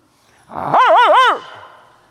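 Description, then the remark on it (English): A Doberman gives one loud, drawn-out vocalization lasting under a second, a wavering bark blending into a growl, rising and falling in pitch before cutting off, with no talking. “We're a lot like that Doberman.”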